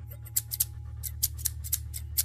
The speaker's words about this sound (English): The sound of scissors echoes around the corner. The noise crawls like a thousand tiny strings beneath my skin.